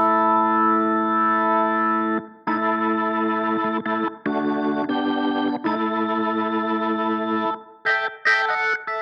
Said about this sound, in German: bin jetzt bei 2 Kilohertz und wir sweepen mal ein kleines bisschen